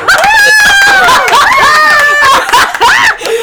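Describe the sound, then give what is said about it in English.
A small live studio audience of two people cheers loudly, with high, wavering whoops and shouts that rise and fall continuously for a few seconds; any clapping is hard to pick out beneath the voices. “You gotta clap. Say hi.”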